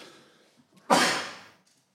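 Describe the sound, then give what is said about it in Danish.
A single sudden, forceful sneeze bursts out after a soft intake of breath, then trails off with a breathy hiss before quiet returns. “Åh, jeg skal nys nu. Der kommer den.”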